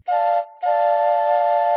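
A train whistle sounds two loud, steady-pitched blasts as the train pulls into the station: a short toot followed by a longer sustained wail, with no voices.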